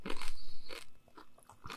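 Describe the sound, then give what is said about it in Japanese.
Crunchy chewing with no talking: a few loud, crackly bites at the start and again near the end, separated by softer, irregular smacking and clicking mouth sounds. “結構この、くちゃくちゃ言ってる音とか入るんだよね。”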